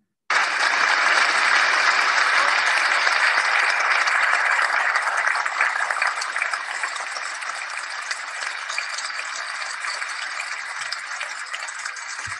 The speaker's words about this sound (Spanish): Voy a poner aplausos una vez más, pero por todos, porque es injusto que, que haya sido solamente por mí.